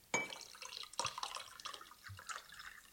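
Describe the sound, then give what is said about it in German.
Running water splashes and gurgles steadily, like a toilet flushing, with a couple of louder surges near the start and a constant bubbling trickle throughout. No voices. “eher wie eine Toilette als wie Meer.”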